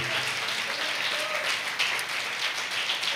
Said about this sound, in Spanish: un fuerte aplauso a nuestro Dios por su bondad, por su amor y por su misericordia. Aleluya.